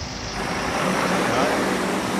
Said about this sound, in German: So, und warum das Rennbahn heißt, merken wir jetzt schon an der Menge des, des Verkehrs, der hier aufkommt.